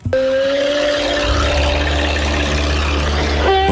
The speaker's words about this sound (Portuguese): senhor para o carro à beira da estrada com esta música tipo Paris, Texas.